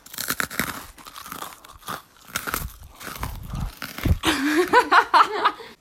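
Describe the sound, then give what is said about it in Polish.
Loud crunching of crispy banana snacks, with a rapid, irregular series of crackly bites and chews right at the microphone, followed by a brief hummed voice near the end. “Dobra, to na trzy, cztery chrupiemy do mikrofonu.”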